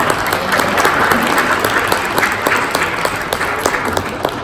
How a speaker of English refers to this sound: But I was going to say, we have a round of applause for our speakers. But you've given one, so that was fantastic.